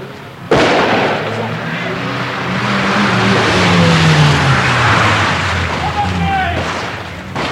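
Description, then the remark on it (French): Several cars of a three-car motorcade, two security cars and the president's car, roar in at speed after a sudden loud burst during a simulated grenade and gunshot attack drill, their engines rising and sliding in pitch as they pass, with voices faintly underneath. “arrivée des voitures immédiatement, en simultané”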